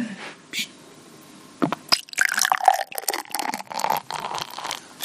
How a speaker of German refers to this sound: das Einschenkgeräusch ist schon sehr schön. schön. Klingt, klingt, schön, ja.